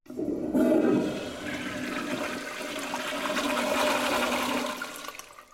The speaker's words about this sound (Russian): И ладно, если, например, например, из э, макулатуры сделают туалетную бумагу, ее можно смыть в унитаз, но вот э, пластиковые предметы уже в унитаз не смоешь.